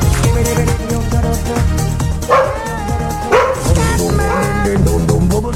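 A female dog, Paulinha, lets out a couple of sharp, high-pitched yelps and whimpers after someone stepped on her tail, a pained cry cutting through loud, steady music playing in the background.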